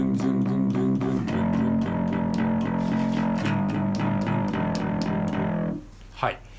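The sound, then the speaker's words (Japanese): An electric bass plays simple root notes, the simplest beginner pattern, plucking each one in a steady, even eighth-note pulse and shifting to a new pitch, such as E, a couple of times before stopping abruptly. A brief faint sound follows. “G だったら G で E だったら、えー、E の音をドゥンドゥンドゥンドゥン、まあ、これはね誰でも弾けますよねこれルート弾きですねこれがあの初心者でもできる一番シンプルなパターンですね”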